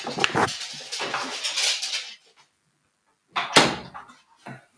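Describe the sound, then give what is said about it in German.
A door rattles and swings open with some shuffling as a dog is let out, then silence, followed by a firm thump as the door shuts again, with a few small knocks afterward. No one speaks. “Ich habe schon in dem Moment, wo ich die Tür wieder zugemacht habe, hat er sich schon wieder so umgedreht und sich gedacht, achso, du kommst nicht mit raus.”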